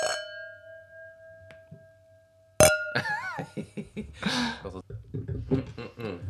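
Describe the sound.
Wine glasses of wine made the champagne way, with fermentation in the bottle, clink together in a toast, the first chime ringing out clearly and fading slowly, followed by a second sharp clink as people start talking and laughing.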